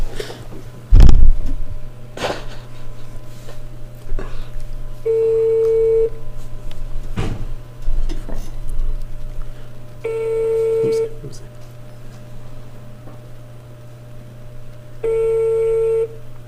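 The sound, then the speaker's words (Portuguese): A phone call being dialed and ringing without being answered: a few short clicks and beeps, then three steady ringback tones spaced about five seconds apart, each lasting around a second, over a constant low hum. “Olha, por enquanto atenção, não atendeu. Atenção. Meu Deus. Será que ela vai atender?”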